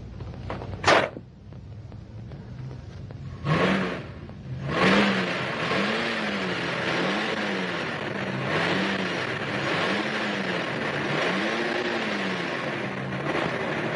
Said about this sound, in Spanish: El tío Oscar quiere que le arregle el coche. ¿Qué servicio desea? Pues no sé qué tiene. Tose y se atranca, tose y se atranca.